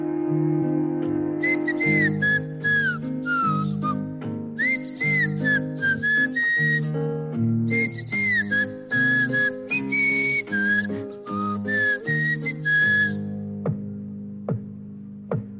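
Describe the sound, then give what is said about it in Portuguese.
A bright, melodic whistled tune plays over a bouncy instrumental backing, phrases repeating in a cheerful cartoon-style theme before ending with a few sharp plucked accents. It is the whistled opening tune of a cartoon. “Então ele já ele gostava que eu assistisse o, o desenho e ele amava a, a musquinha do assobio, do início. Ele amava, ele assobia até hoje, assim, do nada você vê, você pode, você flagra ele assobiando essa, essa musiquinha que é muito.”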